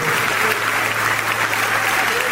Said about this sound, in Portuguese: Vamos aplaudir o Senhor.